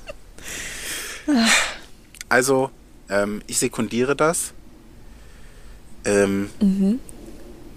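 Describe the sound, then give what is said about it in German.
A single sharp sneeze bursts out near the start, a short breathy build-up then the explosive release, followed by people talking casually. “Gesundheit.”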